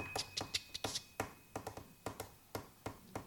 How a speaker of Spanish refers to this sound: Tienes delante un chico que golpea la tapa del bolígrafo.